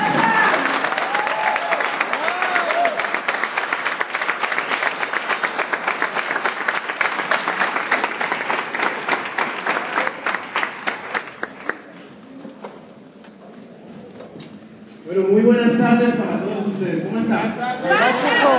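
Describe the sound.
Loud, dense applause from an audience, many hands clapping rapidly for about ten seconds before thinning out and fading; after a short lull, a man begins speaking.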